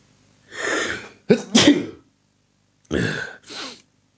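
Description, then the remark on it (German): A loud sneeze with a breathy wind-up, followed about a second later by a second, softer sneeze. No one speaks, and silence separates the bursts. “ich muss kurz niesen, Entschuldigung.”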